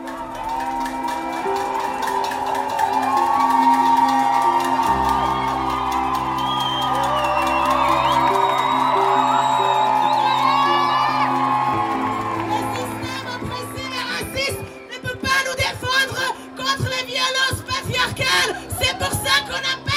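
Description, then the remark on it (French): A large strike crowd shouts and cheers at midnight as the strike begins, voices overlapping in a loud sustained roar, then breaks into choppier bursts of yelling and whoops toward the end. “On a poussé des grands cris et c'était vraiment, vraiment, vraiment super.”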